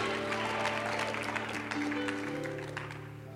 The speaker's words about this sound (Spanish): Vamos, dale un fuerte aplauso al Señor esta mañana con alegría y entusiasmo, porque lo que importa es lo que dice el Padre.